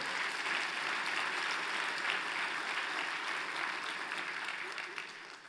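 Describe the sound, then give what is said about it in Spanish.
An audience applauds steadily for the Lord, a dense wash of many hands clapping at an even, sustained level for several seconds, tapering slightly at the end. “Lo creemos, se lo damos fuerte al Señor.”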